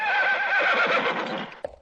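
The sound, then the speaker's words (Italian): A horse neighs loudly, a long quavering whinny that wavers in pitch before trailing off, followed by a couple of brief snorts or hoof sounds. “Questa volta mi soffermo sui cavalli, questi splendidi, mitici animali, compagni di vita e di lavoro, di sport e anche di guerra.”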